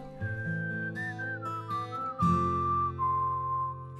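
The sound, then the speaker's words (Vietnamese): A clear whistled melody glides over steady instrumental backing, a sustained bass and chordal accompaniment playing continuously like a song introduction, with no one speaking. “quý vị chúng ta hãy cùng thư giãn với một giai điệu âm nhạc bài ca tôm cá”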